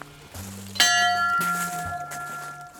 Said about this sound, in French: Elle sert encore cette cloche euh, ce, qui la voit. C'est une cloche qui vient de l'échevêché euh, de Bordeaux. en fait c'est mon père qui travaillait dans le bâtiment et ça lui a été donné euh, par l'échevêché de Bordeaux la cloche.